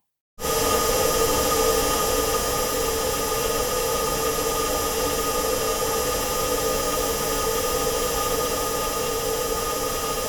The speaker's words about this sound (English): And I guess, I mean, it's not all that interesting, really, other than uh, you hear some machinery in there. But I, one of the things I, I, guess that's making the most noise is its internal heating elements.